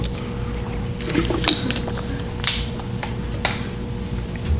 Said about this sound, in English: The brief uh, water break here is the reading equivalent of the three dots section break in the book.